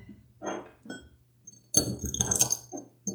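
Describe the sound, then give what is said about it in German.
Crispy food, microwaved for one minute until it formed small bubbles, crackles and crunches as it is handled, with short bursts early on and a louder, denser stretch of brittle crinkling toward the end. No one speaks. “Das ist nach einer Minute in der Mikrowelle. Ähm, das klingt knusprig irgendwie. Das klingt sehr knusprig.”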